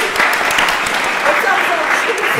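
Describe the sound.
A crowd breaks into steady, dense applause, many hands clapping at once in a continuous loud patter, with a few voices faintly mixed in.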